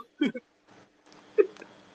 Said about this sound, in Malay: uh, aku sedu dah.